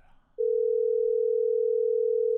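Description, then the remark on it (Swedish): A phone's ringback tone sounds as one steady, clear electronic tone lasting about two seconds, fairly loud, following a brief moment of faint background noise, as a call to a security manager around 2 a.m. goes unanswered. “Signalerna går.”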